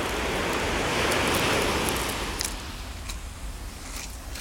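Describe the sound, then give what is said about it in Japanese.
Ocean waves break on a beach: a wave rushes in with a broad, hissing wash that swells to a peak, then recedes into a softer, fizzing retreat over the shore. Steady, with no voices. “まあせっかく今海に来ているのでちょっと波の音をお楽しみください。”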